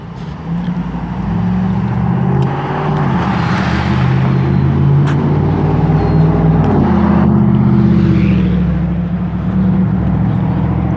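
A pickup truck with a loud muffler: its rumbling engine with a deep exhaust drone runs steadily for several seconds, swelling as the truck approaches, then shifting and fading slightly as it passes by.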